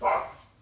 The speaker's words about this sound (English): And uh, excuse me if you hear in the background my little, uh, Doggy, I think, hears someone coming home, so excuse the barks there.